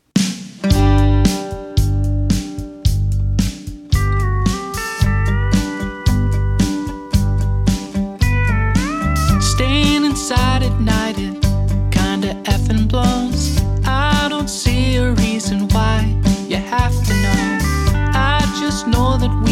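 A blues song plays with a steady, loud beat of thumping bass notes under sustained melodic lines, and a singing voice with gliding pitches comes in partway through.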